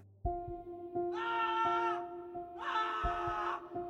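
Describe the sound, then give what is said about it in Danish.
Two loud, drawn-out wailing screams, each lasting about a second, come from a bathroom, rising over a steady low hum with a few dull thuds in the background. “Et højt, Jamrende skrig har vækket ham, og hjertet banker hårdt i hans bryst.”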